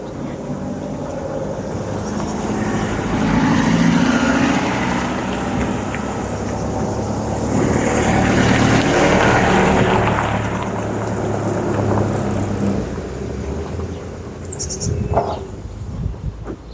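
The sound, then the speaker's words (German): Tires of two limousines rolling over gravel: a steady crunching rumble over a low engine hum, swelling louder twice, with a brief high chirp near the end. “Das, was du jetzt gehört hast, das sind, ich erkläre das mal, die Reifen einer, nein genau, von zwei Limousinen auf Schotter.”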